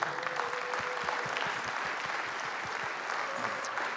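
An audience claps steadily, a dense wash of many hands with a few sharper individual claps standing out, sustained at an even level throughout with no voices rising above it.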